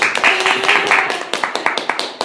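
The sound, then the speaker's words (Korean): A short round of clapping from a small group, rapid sharp claps at a steady rhythm, with a voice briefly talking over the start before the applause continues on its own. “아, 네, 박수 한번 처음 보시네요.”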